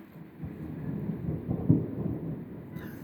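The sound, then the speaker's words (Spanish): A low, rolling rumble of thunder swells and churns for a few seconds, heavy in the bass, with no voices over it. “Ese trueno estaba planeado, ¿eh?”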